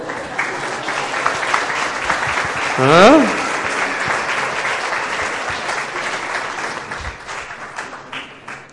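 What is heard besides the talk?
audience applause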